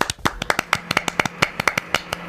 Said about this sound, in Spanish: Espera, aplaudimos las dos a la vez, entonces sí, por es mejor. Venga, un, dos, tres, ya.